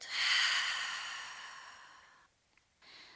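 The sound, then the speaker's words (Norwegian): A long, deep cleansing exhale blown out through the mouth after a deep breath in through the nose, a breathy rush that starts strong and slowly fades over about two seconds, followed by a brief pause and the start of another breath. “Tar et dypt innpust inn gjennom nesa og et rensende utpust ut gjennom munnen.”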